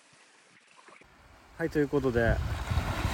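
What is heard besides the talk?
ocean waves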